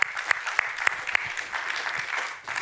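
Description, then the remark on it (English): A crowd applauds with dense, steady clapping for a few seconds, a handful of sharp louder claps standing out at a regular beat early on before the applause evens out and begins to fade, thanking the people who put up the lights and decorations. “Can we give them a hand clap?”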